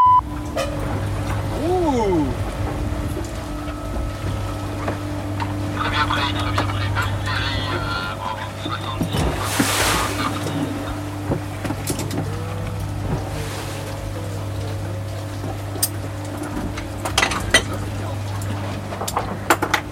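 Inside the mess room of a research vessel at sea: a steady low engine drone fills the space, with scattered clinks and clatter of dishes and a brief whooshing burst midway, no clear talk.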